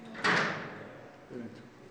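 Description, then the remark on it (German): A door in Iran that only CIA staff were once allowed to pass through bangs open or shut with a sharp, echoing knock that rings out and fades, followed by a brief muffled voice. “Hier sagt er, durch diese Türe durften nur Mitarbeiter der CIA gehen, mitten ins Zentrum des Spionagenests, wie es im Iran heißt.”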